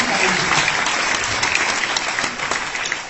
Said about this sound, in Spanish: Un aplauso enorme para cada una de las personas que está haciendo